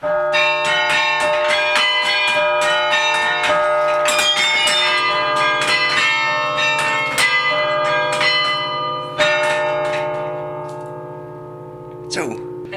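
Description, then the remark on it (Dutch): A carillon plays a melody, its bells ringing with long overlapping tones while the wooden keyboard batons clatter and knock audibly; the bells fade toward the end, then one final clack. “ik wil meteen zeggen dat hier horen wij heel veel extra klanken van het toetsen.”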